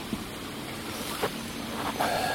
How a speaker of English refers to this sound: But there's a little stream, and what's really neat though is there's a uh, coming down from the top.